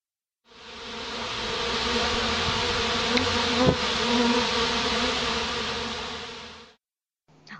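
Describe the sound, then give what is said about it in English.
A buzzing bee sound effect drones loudly in one steady stretch of about six seconds, marking the start of a show segment, with no other sounds around it. It begins and cuts off abruptly. “All right, that sound means it's time for our Community Buzz segment where we find out what the fans are talking about.”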